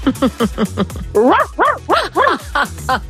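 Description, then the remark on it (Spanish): Answering a quiz prompt to make an animal sound, a person imitates a dog, letting out a quick run of short, yappy barks followed by several longer, rising-and-falling howl-like woofs, loud, with brief pauses between. “Bien, mayoría, el perro, muy bien, sí señor.”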